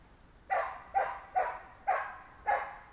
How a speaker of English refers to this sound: look, the dog's barking now because he's saying, will you listen to yourself?